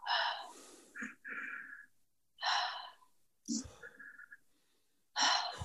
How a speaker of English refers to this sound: And then just, we're just going to lift the energy up, just raise the vibrations within us up a little bit by just breathing in for two and then exhaling for one. So breathing in through the nose for two and then exhale.